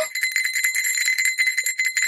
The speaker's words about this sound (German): Also, ich klingel, guck so mit der Schulklingel.